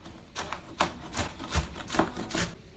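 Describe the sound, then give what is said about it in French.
A knife chops onions on a cutting board for a sweet prune sauce, in a steady rhythm, about two or three muffled, scraping strikes per second, fairly quiet, with no talking. “Je coupe des oignons”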